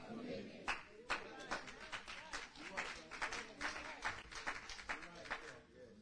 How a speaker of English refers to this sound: I got a lot of claps on my left side. Very few on my right. I don't know. I'm going to give them another chance. I don't know what's going on on my right side.